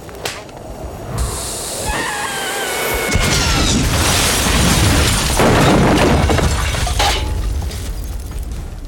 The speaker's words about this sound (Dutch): De sigaar komt tegen het fornuis. Een ontploffing volgt. Zij vliegen weg terwijl je hoort... Nee!